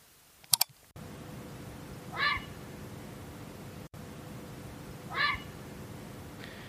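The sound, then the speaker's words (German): A grey heron gives two harsh, croaking calls about three seconds apart, moderately loud against a steady low background rumble, with a brief click at the very start. “Ja, das war der, der Graureiher. Der ruft tags und nachts laut krächzend, irgendwie so krech, so ungefähr, ähm, im Flug.”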